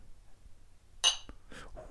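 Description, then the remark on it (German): Two glasses of 15-year-old single malt whisky clink together once in a toast, a single bright, ringing chime that fades quickly, followed by faint soft rustling. “anstoßen.”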